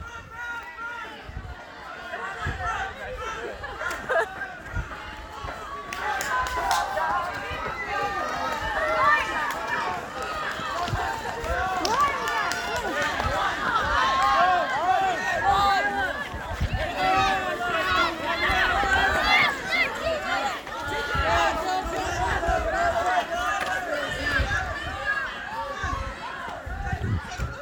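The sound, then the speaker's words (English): A continuous din of children running, panting and screaming at the bead buckets during a bead call, with overlapping shrieks and shouted voices piling on each other for the whole stretch, loud and chaotic throughout. “Lots and lots of panting and screaming and put your beads in here.”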